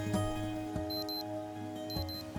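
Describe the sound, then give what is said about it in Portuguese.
A wristwatch alarm chirps in quick bursts of high, thin electronic beeps, two clusters about a second apart, fairly faint over a low background hum with a few soft clicks. “tem o relógio de pulso, ele desperta.”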